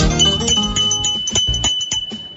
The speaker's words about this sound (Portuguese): Essa aqui é a campainha do artesanato mineiro da nossa amiga